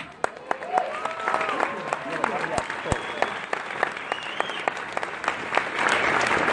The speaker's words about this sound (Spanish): Un aplauso